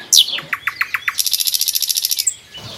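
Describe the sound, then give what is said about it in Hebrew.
A small bird sings a quick, bright song: a sharp opening note, a handful of evenly spaced chirps, then a rapid high trill, clear with no talking. “כל בוקר שהתעוררתי בבית אה, בתימורים, אז הייתי יוצאת למרפסת ולגינה, והוא היה בא איתי והוא היה שורק לציפורים, והן היו עונות לו, תמיד, וזה תמיד הקסים אותי.”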